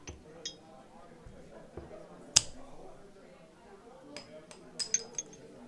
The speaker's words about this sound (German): Wollen wir nochmal anstoßen?